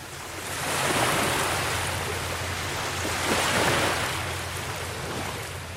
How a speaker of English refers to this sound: I remember the wet, briny air in the postcard perfect fishermen's coves, the mesmerizing waves endlessly kissing the shoreline.